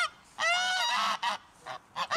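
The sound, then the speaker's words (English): Several geese honk loudly, a long harsh call followed by a few shorter bursts in an uneven rhythm, with no talking. “can you please stop the geese?”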